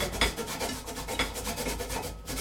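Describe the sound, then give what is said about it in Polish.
Vegetables being rubbed over a fine grater into a tall vessel in a steady back-and-forth rasp, a rapid series of scratchy strokes at an even rhythm, moderately loud with no talking. “Dobrze jest, żeby trzeć e, te warzywa w wysokim naczyniu, żeby nam się nic nie wymknęło.”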